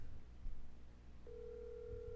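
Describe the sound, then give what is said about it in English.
An outgoing phone call rings on the line: a steady electronic ringback tone starts partway through and holds unbroken to the end over a low background hum, with no one speaking. “She not gonna answer.”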